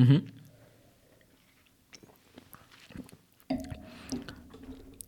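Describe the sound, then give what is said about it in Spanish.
Mouth sounds of someone sipping beer and swishing it around the palate while tasting it, with wet smacks and small gulps, loud, with a brief pause midway. “Ya sabes que el primer trago no.”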